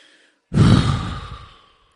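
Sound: imitated heavy exhausted breathing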